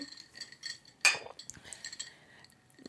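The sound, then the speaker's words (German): Glasses clink together once in a sharp, bright toast, leaving a short ringing tone, with quieter clatter and faint tapping of glassware around it. No one speaks. “Red Devils, Prost. Prost.”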